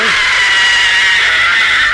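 A long, shrill scream from the opening of a horror television series from around 1970, held at a high pitch for about two seconds, loud and sustained without breaks, with a slightly wavering, strained tone and no talking over it.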